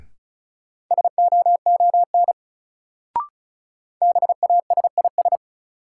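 Rapid Morse code beeps at 35 words per minute from a new-word practice drill sending sets of three words, a steady mid-pitched tone keyed in quick dots and dashes, two bursts separated by a brief pause and a short click, with no voices.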